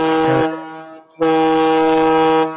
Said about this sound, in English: I was really hoping for a fucking foghorn, man. Um, but I think that's Hold really on, it'll come in a second. There it is.